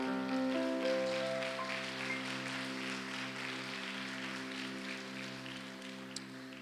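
church audience clapping

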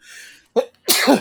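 sneeze

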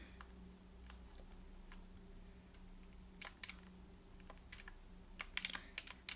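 game controller buttons clicking

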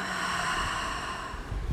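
exhaling through the mouth

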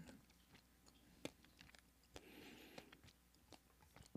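chewing food

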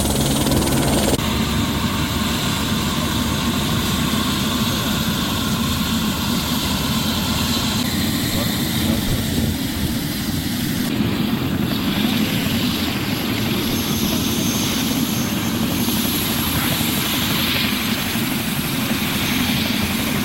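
helicopter landing

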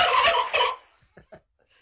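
turkeys gobbling

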